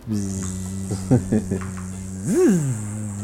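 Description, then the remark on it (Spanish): A person hums a steady, nasal buzzing tone imitating a mosquito, with a few brief wavers partway through and a quick rising-and-falling swoop near the end, fairly loud. “ah, zancudo. Sí. Mosquito.”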